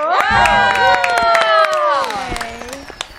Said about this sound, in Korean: 자 이렇게 해서 테너트 예! 스테이지 클리어 박수 주세요.